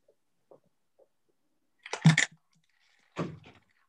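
Ice cracking: a few faint, scattered ticks give way to two louder, sharp crackling bursts a second apart, with no voices present.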